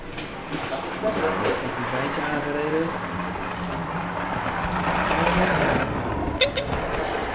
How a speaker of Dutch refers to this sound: En dan komt met een treintje komt naar de tafel toe.